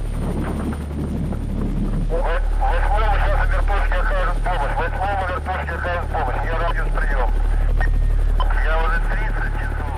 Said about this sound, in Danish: En sovjetisk helikopter summer tæt hen over os.